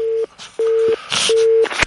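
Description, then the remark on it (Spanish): A telephone line tone sounds in three short, steady-pitched beeps separated by brief pauses, with some hissy noise and clicks between them. No one speaks. “Hoy es que funciona el teléfono, ¿eh?”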